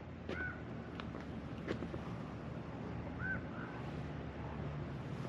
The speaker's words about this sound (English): Right now, all I hear are birds.